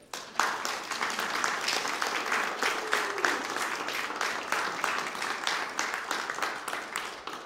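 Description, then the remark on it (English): Sustained audience applause for everyone in the sound booth, a dense patter of many hands clapping at a steady, fairly loud level for several seconds, with a faint brief whistle-like tone partway through. “I want a round of applause for everyone in that sound booth over there.”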